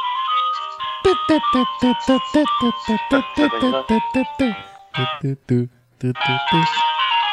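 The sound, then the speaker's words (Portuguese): A phone ringtone plays a bright electronic melody of quick, evenly spaced notes, then a few lower tones, loud with no one talking over it. “Putz, tocou o telefone agora, peraí.”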